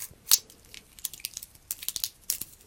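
Crisp metallic clicks and rattles as the metal band bracelet of an old wristwatch is handled, with a sharp jingle near the start followed by irregular bursts of small link clatters, no voices.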